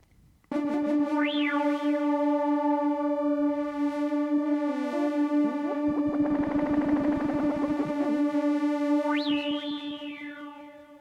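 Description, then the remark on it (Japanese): A sustained tone from a Yamaha AN2015 synthesizer, rich in harmonics, drones steadily while its sound is played with and its timbre swept and twisted, with filter sweeps rising, a gritty modulated stretch in the middle, and a final bright sweep before fading. “シンセ自体で遊ぼうと思ったらやっぱりあれですね私の好きなヤマハの AN2015 AN2015 っていうのかなこれの方がやっぱり面白いのは面白いですねこれシンセの音をこうグリグリっと遊べるのが。”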